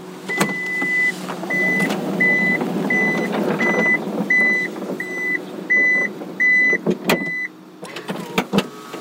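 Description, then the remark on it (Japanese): A powered van door, with a two-step entry, is closed from inside the van to a steady series of about ten warning beeps over a whirring motor, ending with a few solid clunks as it shuts. “はい乗り込みやすいですはい車内に来ましたドア閉めてみます”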